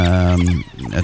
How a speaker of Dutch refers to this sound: Dan komen ze terug om de pups eh, van voedsel te voorzien. En dan is dit het geluid van een hele hoop eh, onrustige wilde hondjes die eh, smeken om dat voedsel.